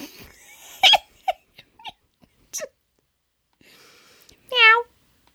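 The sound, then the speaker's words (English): A person imitates a cat's meow with a loud, drawn-out vocal mew near the end, after a few short, scattered vocal blips and clicks. “Meow.”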